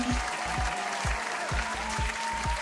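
A crowd applauds loudly and steadily to welcome a guest onto a show, a dense wash of clapping, with a rhythmic low thump pulsing underneath roughly twice a second.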